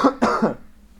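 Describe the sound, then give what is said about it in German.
A person coughs to clear saliva from the throat: a fairly loud cough in two or three quick bursts, then a short rasp of throat clearing that trails off into near silence. No talking. “jetzt habe ich äh, Spucke im Hals, Moment, ich muss nochmal husten.”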